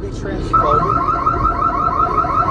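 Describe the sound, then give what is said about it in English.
A loud electronic alarm at Bel-Fries, a French fry shop on Ludlow Street, kicks in after a brief moment and blares steadily with a rapid, warbling tone as a group of women trash the shop, while muffled voices and commotion continue underneath. “The sound of the alarm oh did God.”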